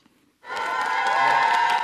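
After a brief quiet moment, loud sustained applause breaks out from feminist activists as French ecologist senator Mélanie Vogel appears before the press, steady dense clapping mixed with cheering voices that continues without pause to the end.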